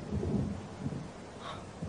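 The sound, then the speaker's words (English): Low, continuous thunder rumbles through the whole stretch before a storm, a deep rolling growl that swells early and then settles into a steady murmur, with no voices present. “It's gonna storm. It's gonna be a bastard.”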